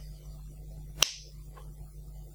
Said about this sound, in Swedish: Så jag tänkte att jag singlar slant om vi ska köra den eller inte.